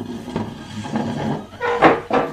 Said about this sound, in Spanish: Entonces me pondré de pie Déjame mover la silla un poquito.